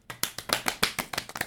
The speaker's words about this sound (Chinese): 虚伪的女性友谊的鼓掌。